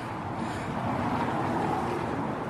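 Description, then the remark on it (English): A steady, continuous rumble of traffic noise from many cars driving back and forth outside, with no distinct individual pass-bys and no one speaking. “we decided to record in the only place where a lot of cars seem to be driving and forth.”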